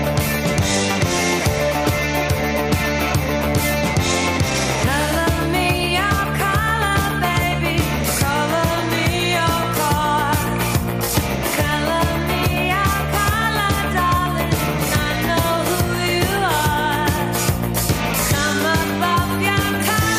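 A full-band pop rock song plays steadily throughout, with a driving beat, bright guitars and dense layered instruments at an even, moderate volume, and no one talking.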